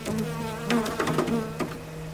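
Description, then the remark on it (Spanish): Honeybees buzz outdoors around hive boxes: a steady insect buzz hums throughout, with several louder buzzing passes as individual bees fly by, overlapping into a busy, continuous drone. “Fuera, donde están las cajas, las abejas.”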